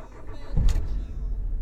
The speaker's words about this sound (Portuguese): Liguei o carro